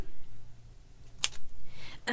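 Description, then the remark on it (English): A few sparse, sharp typewriter key strikes clack out in an office, spaced irregularly rather than in a steady run, with no one talking. “Do you work here or are you just testing the typewriter?”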